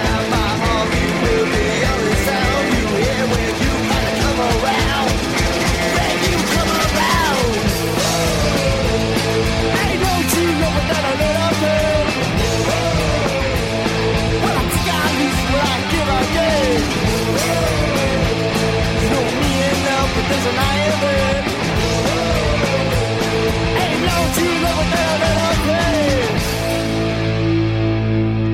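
A loud, driving old-school rock-and-roll punk song plays continuously, with dense distorted guitars and steady pounding drums filling the mix from start to finish, ending on a sustained chord.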